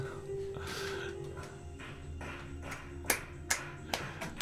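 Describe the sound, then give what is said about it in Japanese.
Rhythmic claps from a pro wrestling crowd keep time with upbeat entrance music as a wrestler makes his entrance, starting faintly and growing into sharp, loud unison claps near the end, with the music playing steadily underneath. “さあ、ラジオの前の皆さんも手拍子、あお願いします。”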